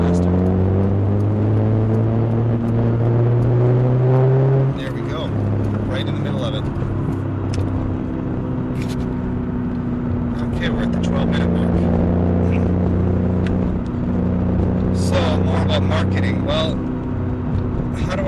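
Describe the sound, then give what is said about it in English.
Steady low engine drone and road rumble inside a car moving very slowly in the slowest lane of traffic on Dowling Avenue, with gear-like pitch shifts and occasional clicks and rattles over the continuous hum. “Well, I'm at Dowling Street, Dowling Avenue, and it's moving very slowly. I'm in the slowest lane.”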